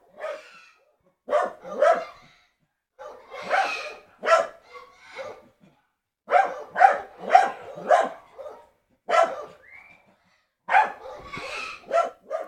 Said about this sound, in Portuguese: Olha isso, é cachorro, é, é, pessoa falando, é o passarinho gritando.